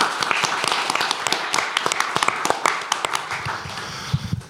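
An audience applauds steadily for several seconds, applauding everyone including the technical crew: a dense patter of many hands clapping at once with sharper individual claps popping out of the wash of sound.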